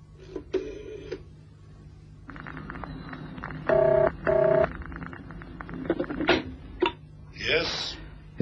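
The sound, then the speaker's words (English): Telephone dialing on a private line: a few short electronic tones ring out clear, two in quick succession, amid handset clicks and a low steady hum. “I hope it's important, using the private line during working hours.”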